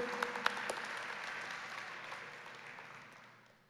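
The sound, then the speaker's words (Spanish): An audience claps for a brave volunteer who came forward, a dense, steady burst of applause with a few sharp individual claps near the start, gradually thinning and fading over a few seconds. “Bueno, muy bien, Déme un aplauso a este valiente.”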